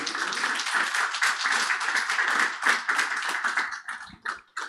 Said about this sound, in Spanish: Recíbanla con un aplauso, por favor.